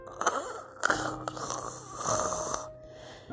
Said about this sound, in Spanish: Después de una ardua faena, los hombres exhaustos y doblegados se marcharon a descansar. Todo el mundo roncaba por la fatiga.